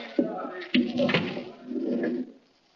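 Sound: door being closed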